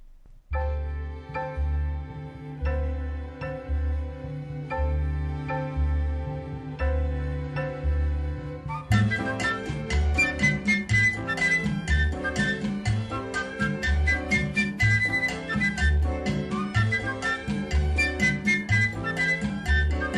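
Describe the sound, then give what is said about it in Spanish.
An upbeat song about recycling plays on a radio programme as part of a summer course on recycling, opening with a sparse, steady bouncing beat and melody before a fuller, brighter band arrangement kicks in about halfway through, loud and continuous, with no singing yet. “vámonos con esta canción, eh, ¿la presentas Marjorie?”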